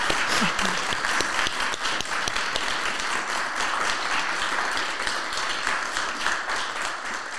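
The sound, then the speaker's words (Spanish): Steady audience applause fills the whole stretch, a dense wash of many hands clapping, loud and continuous without pause or spoken voices. “Yo creo que le demos un aplauso a, tu vivencia.”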